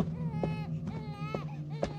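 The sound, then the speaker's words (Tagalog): A baby cries in a continuous, high-pitched wail whose pitch wavers up and down, with a few short thuds breaking through at intervals. “Subalit nagulat na lang ako nang biglang umiyak”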